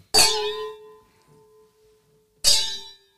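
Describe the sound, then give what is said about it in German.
Wine glasses clink together twice in a toast, about two seconds apart, each bright tap ringing out with a clear, bell-like tone that slowly fades. No one speaks. “Es hört sich an die Kirchenglocken am Wollerberg.”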